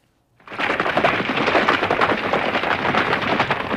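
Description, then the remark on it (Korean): Several horses gallop together, their hoofbeats blurring into a dense, loud, continuous rumble that starts abruptly and holds steady throughout, with no voices. “아, 이게 지금 말이 막 여러 필이 달리는 소리랍니다.”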